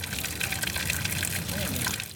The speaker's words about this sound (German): Aus 38 Wasserhähnen über 38 steinernen Waschbecken fließt warmes Thermalwasser heraus. Immer wieder kommen Leute und füllen sich Plastikflaschen damit auf.